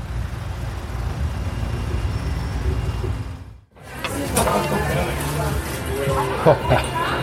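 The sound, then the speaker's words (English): Slow, clogged street traffic rumbles steadily with low engine drone, then after a brief cut the street noise returns busier, with people talking and a few sharp clatters. “if the traffic's slow we can just i mean it's all clogged up so we can cross here you think?”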